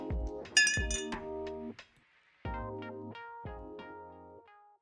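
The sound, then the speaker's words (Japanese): A bright clink of glasses in a toast with milk rings out near the start, followed by sustained, bell-like musical tones that sound again in two more strikes before fading out. No one speaks. “とりあえず牛乳でも飲むか。なんならアイスも食べちゃおう。牛乳で乾杯。”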